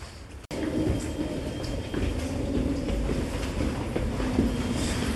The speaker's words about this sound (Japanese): ああ電車来た間に合うかなうわ人いっぱいだ